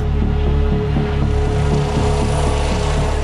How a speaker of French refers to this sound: Il est 16h quand un hélicoptère s'approche de la maison d'arrêt de Luynes.